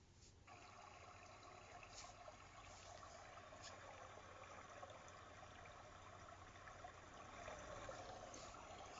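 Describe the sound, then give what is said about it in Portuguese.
Running water trickles steadily and continuously, a soft, even wash of flowing water with a light bubbling texture and no voices. It stays fairly quiet throughout. “O elemento água.”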